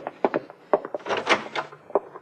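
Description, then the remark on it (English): A closet door is opened: a few quick wooden knocks and rattles, then a longer scraping, sliding rush as it swings open, followed by a couple of light clicks. “I look back at that door. No. Oh, here, maybe the closet.”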